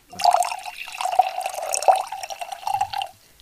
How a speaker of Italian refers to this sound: per tradizione il nostro podcast comincia sempre con un calice di Calta Rosé. Posso versartene uno? Certo, grazie.